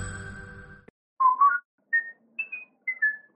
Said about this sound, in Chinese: 别吹口哨了，口水喷得像下雨。